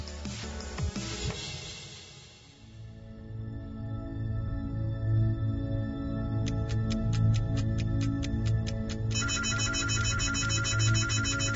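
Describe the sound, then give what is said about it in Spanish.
An alarm clock goes off with rapid, evenly spaced electronic beeps that speed into a dense, continuous beeping pattern, loud over a steady low background hum. “Suena la alarma, te levantas casi de un salto.”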